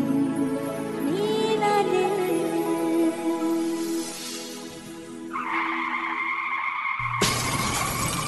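car skidding and crashing

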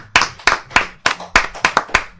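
applause

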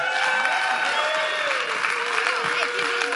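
audience applauding a speaker

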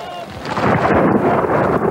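thunder

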